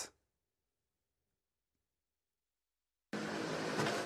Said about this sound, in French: Laurent essaye pour la première fois de conduire un scooter électrique